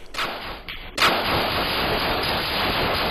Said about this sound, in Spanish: Más de una decena de disparos salieron de un apartamento al suroeste de Dallas luego de que dos hombres intentaran entrar a la fuerza. Este video de vigilancia muestra lo que desencadenó el tiroteo.